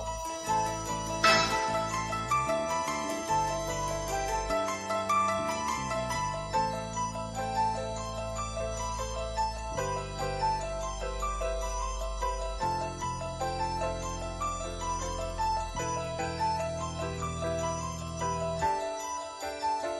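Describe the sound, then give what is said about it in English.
Instrumental music plays steadily with layered, repeating bell-like and keyboard patterns weaving over a shifting bass line, creating a hypnotic interlocking rhythm; no voices are heard. “we're going to just hear a small part of …”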